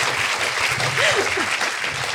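A small group claps in a steady, dense patter for the whole stretch, and a brief voice rises and falls over the applause midway through.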